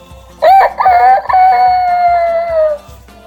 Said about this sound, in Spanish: Se oyó el canto de un gallo.